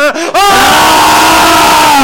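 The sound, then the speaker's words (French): A loud, sustained scream from several voices at once, shouted together in a studio after a countdown, rising after a brief opening cry and held for about two seconds before cutting off. “Donc voilà, dans le studio, dans vos baignoires, dans vos cuisines, dans vos voitures, il va falloir hurler, crier avec nous tous ensemble.”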